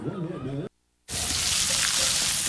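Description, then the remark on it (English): A voice speaks briefly, then after a short silence a steady, loud crackling hiss of hot dogs sizzling on a grill fills the rest of the moment, continuous. “Hear that? That's the plumpest, juiciest hot dogs you've ever seen getting their grill on.”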